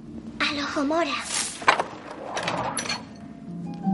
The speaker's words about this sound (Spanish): Hermión abre la puerta con la varita.